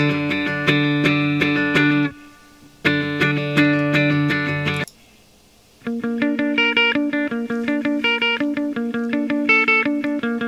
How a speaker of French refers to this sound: pour les guitares. enregistré dans la voiture avec un micro Blue Yeti hein, placé devant l'ampli, un tout petit ampli cube à pile.